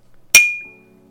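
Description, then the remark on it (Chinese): A single bright clink of glasses touching in a toast, sharp and loud, followed by a clear high ringing tone that slowly fades out, with a faint low hum underneath. “所以呢，好，那我们都有饮料啦，那我们现在就来干杯一下，好，预祝 好 节目顺利，哈，干杯！”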